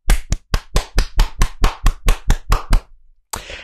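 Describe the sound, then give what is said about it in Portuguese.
A quick, steady burst of about a dozen sharp, loud hand claps marking six months of broadcasts, like one or two people clapping briefly, followed by a short pause and a faint rush of noise. “Significa que nós estamos a fazer isso já há seis meses, palmas.”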